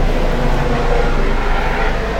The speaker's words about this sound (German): Ein Hubschrauber. Oh.